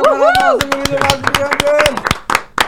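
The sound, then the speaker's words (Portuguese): A short round of applause: sharp, irregular hand claps from a few people, loud and crisp, with voices cheering and calling out over them throughout. “Salve de palmas”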